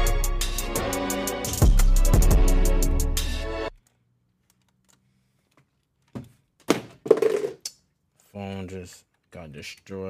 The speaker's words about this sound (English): dropped the shit out of my phone.